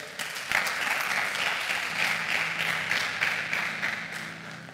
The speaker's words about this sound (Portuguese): Você pode aplaudir e ficar de pé.